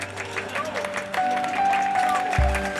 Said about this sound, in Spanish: El siguiente número viene directamente de los jardines de Holanda las preciosas, fragantes y auténticas trapecistas, hermanas Caléndula. Un fuerte aplauso para ellas.